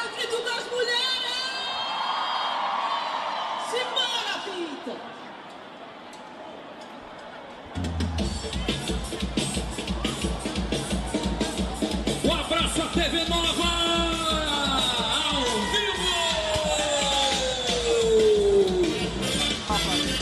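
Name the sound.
audience cheering and screaming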